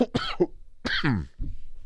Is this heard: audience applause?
no